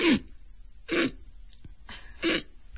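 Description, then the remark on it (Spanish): A person imitates heavy sleep apnea snoring: three loud, harsh snorting breaths evenly spaced about a second apart, with near-silence between them and no talking. “Pero cuando ya hay apnea, es cuando hay tres ronquidos fuertes, luego viene un silencio”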